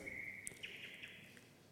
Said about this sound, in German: Okay, genug Gezwitscher.